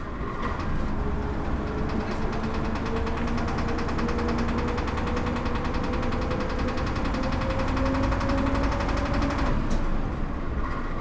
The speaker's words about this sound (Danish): Nu kommer bussen